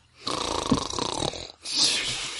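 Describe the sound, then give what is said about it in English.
A person imitates a single loud snore: a rattling, buzzy inhale lasting about a second, a brief pause, then a long breathy exhale, with no talking. “Just let him sleep this night.”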